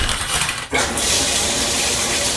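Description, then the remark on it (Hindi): Steady hiss of shower water pouring down as a woman bathes at home late at night, a dense continuous spray that briefly dips for a moment before rushing on, with no voices. “देर रात वो घर पहुंची घर में घुसते के साथ ही उसने टावल निकाला और सीधा नहाने चली गई”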